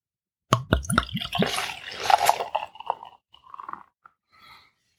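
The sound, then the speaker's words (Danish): Dark beer is poured into a glass: a few sharp clicks at the start, then a steady fizzing splash that turns into softer gurgles and trickles before tapering off into faint bubbling. No one speaks. “Og så vil jeg jo prøve at se, om jeg også kan hælde lidt op.”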